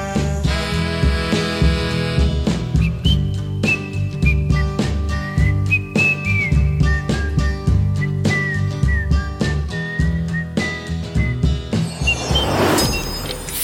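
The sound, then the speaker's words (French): People in a studio try whistling a tune that winds along over a steady backing of music, the melody clear and fairly prominent, before a brief noisy burst near the end. “Oh, tout le monde s'est essayé à siffler euh, studio.”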